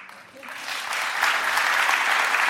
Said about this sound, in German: Vielen, vielen Dank. Dieser Applaus der soll auch euch gelten.